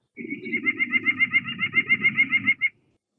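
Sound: nuthatch song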